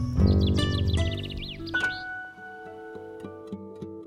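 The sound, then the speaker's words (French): Several birds chirp and trill outdoors in quick, warbling bursts over a low background of ambient noise, busiest in the first two seconds before settling into sparser, quieter calls. “On entend des oiseaux d'un côté.”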